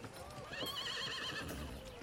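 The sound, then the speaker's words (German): A horse whinnies loudly, a long wavering neigh, while hooves clip-clop steadily underneath. “Wir, wir, gehen zum Wirtshaus und äh, wir satteln das Pferd.”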